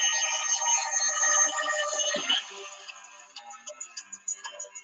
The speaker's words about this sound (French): Excusez-moi. Voilà, c'est mon téléphone. Je vais l'arrêter parce que je suis Alors, attendez, excusez-moi, je, je, vais arrêter mon téléphone parce que, voilà, j'attendais un appel, mais voilà.